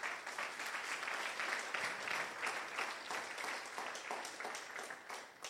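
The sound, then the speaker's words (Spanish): An audience applauding together for Jesus, a steady dense wash of many hands clapping that holds at an even, fairly strong level for several seconds, with no voices standing out. “Den un aplauso a Jesús.”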